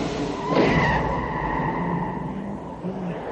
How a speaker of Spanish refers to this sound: Varios frenazos suenan fuera de la habitación.